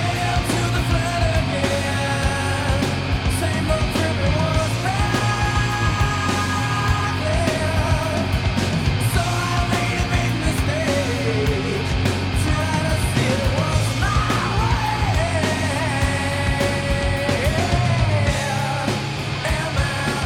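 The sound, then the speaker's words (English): A loud, dense rock song plays throughout, with heavy guitars and drums under a strained, yelled vocal line that holds steady in volume before cutting off near the end. “And this song's got a little bit of light and shade into it, like we talked to talked about that before, and mm-hmm.”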